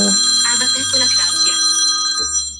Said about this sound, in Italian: Scusate, avrei dovuto silenziare il telefono, però siamo in diretta, quindi insomma il bello della diretta.